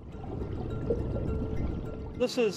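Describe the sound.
Water from a sample taken from Loch Ness pours and splashes steadily into a container for about two seconds, fairly loud, then a voice begins speaking as the pouring fades.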